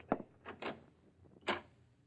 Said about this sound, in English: Ten minutes later, you hear voices and movement down the hall that brings you to your door. You open it quietly.